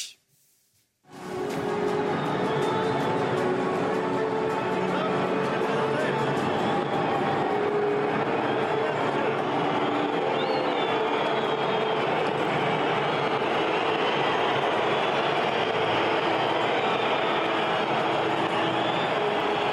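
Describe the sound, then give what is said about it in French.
A huge crowd in the stands at the Stade de France boos and whistles at the French president's appearance on the pitch before the Top 14 rugby final between Toulouse and La Rochelle. A loud, continuous roar starts abruptly after a second of quiet and holds steady, with shrill whistles cutting through the dense jeering. “L'apparition du, du président de la République a été accueillie par des huées venant des tribunes.”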